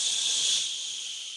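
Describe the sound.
A steady, even tape recorder hiss, bright and airy, runs unbroken for over a second with no voices or other sounds, holding nearly constant in loudness before easing slightly.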